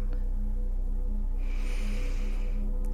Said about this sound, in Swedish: Så om du andas in genom näsan